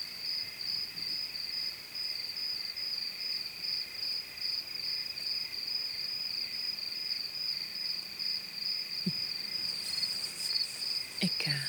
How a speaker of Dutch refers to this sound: Een opname op Devil's Peak. Dit is het geluid van krikkels.